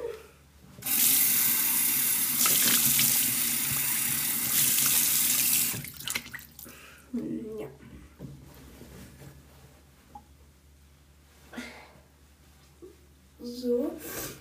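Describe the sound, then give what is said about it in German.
Running tap water pours steadily and loudly for about five seconds as something is rinsed, then shuts off, followed by quieter handling sounds and a person talking. “Jetzt wieder abspülen.”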